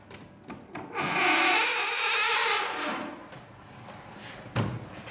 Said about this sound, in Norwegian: Nå får vi se om disse gamle hengslene vil være med oss i dag. Det pleier å gå ganske bra med den det gikk jo veldig fint. døra der. Den høyre er litt mer kranglevåren.